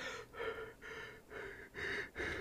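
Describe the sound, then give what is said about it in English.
A voice imitates exaggerated heavy mouth breathing, about five rapid, loud, breathy in-and-out pants in a steady rhythm, with no talking. “Half the time I'm sitting here like fucking mouth breathing, going”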